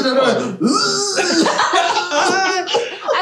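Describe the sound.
A voice imitates a raspy, growling cough, several rough bursts in quick succession, loud, mixed with laughter and voiced vocal noises.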